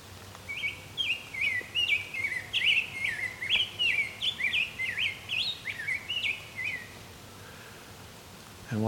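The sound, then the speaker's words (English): A rose-breasted grosbeak sings a long, rich warble of quick rising and falling notes, clear, running for about six seconds over a faint low background hum. “So you don't hear it now, but when the rose-breasted grosbeak calls, it sounds like a squeak in a basketball court, like a sneaker squeak.”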